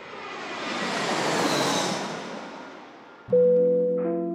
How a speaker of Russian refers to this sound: Дамы и господа, пристегните ремни безопасности. Наш самолет готовится к посадке в городе Барнауле.